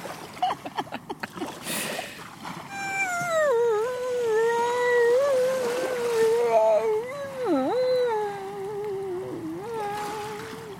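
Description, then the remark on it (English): A seal calls close by, a long wavering moan that rises and dips in pitch for several seconds, following a few brief splashy water sounds at the start. “birdsong imitation is my speciality, not seals.”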